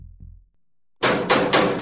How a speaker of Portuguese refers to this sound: O guarda bate a porta.